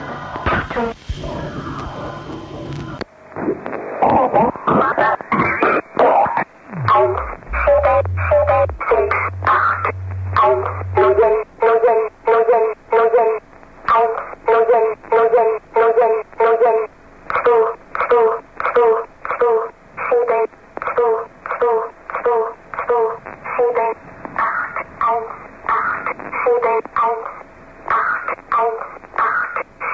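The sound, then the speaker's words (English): A shortwave number station broadcast: a thin, band-limited radio signal opens with a burst of static, then repeats short, evenly spaced tonal pulses in a steady, mechanical rhythm throughout. “Number Stations”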